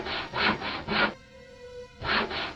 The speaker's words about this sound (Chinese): 咯吱咯吱，又是那锯东西的声音，而这个声音出现的位置，正是我的身后。